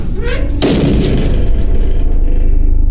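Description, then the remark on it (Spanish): A single heavy, loud bang strikes inside an enclosed chamber and rings out with a reverberant decay over a steady low rumble; no one speaks. “Como siempre, no hicimos caso, pues pensamos que solo había sido nuestra imaginación, pero casi al instante escuchamos otro golpe, me puse de pie para ir a revisar, y en ese momento el interior de la cámara fue golpeado una vez más.”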